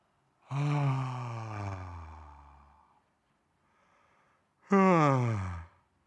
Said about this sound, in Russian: можно снова сделать тройной вдох, наполняющий максимально носом и с любым звучанием прозвучать любое состояние, эмоцию, которую не получилось назвать, можно сделать выдох ртом.